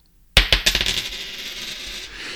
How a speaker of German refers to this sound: Du hast die Münze geworfen, die Münze sagt dir tu's.